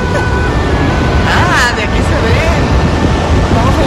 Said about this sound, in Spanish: Ahí está el río y cae hacia estas cascadas y Falls, que es una de las maravillas del mundo. Y son dos veces más altas que las del Niágara.